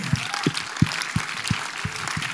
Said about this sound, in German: Und ich möchte echt sagen, er bringt Leben in die Bude. Lass uns ihnen Applaus geben.